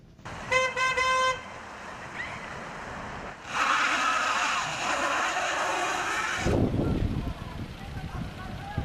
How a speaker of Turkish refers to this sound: Mega kent güne kar ve buzla uyandı. Kaygan yollar zor anlar yaşattı. Otoyollarda mesai trafiği yoğundu.